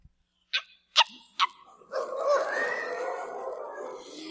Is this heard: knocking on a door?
no